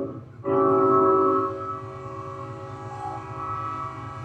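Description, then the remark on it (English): A train horn blasts loudly and suddenly, holding a long chord for about a second before easing into a softer, lingering tone over the low rumble of the passing train. No one speaks. “There's our train. You can probably hear it.”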